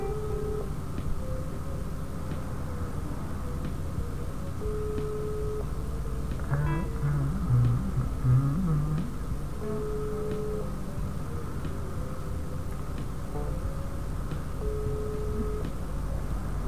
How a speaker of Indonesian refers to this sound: ini podcast isinya nungguin gue nelpon dong ya sama suara-suara telepon